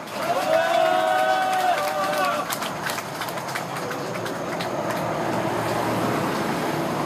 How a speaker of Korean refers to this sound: 우리 윤정호 국회의원을 앞으로 모셔서 당찬 자리의 말씀 들어보도록 하겠습니다. 금 박수로 모시겠습니다.